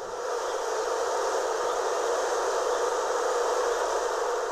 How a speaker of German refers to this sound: Für Imker gilt es, diese Schwarmbildung zu verhindern, denn jede Teilung schwächt das Volk. Ein aufbrechender Bienenschwarm klingt übrigens so.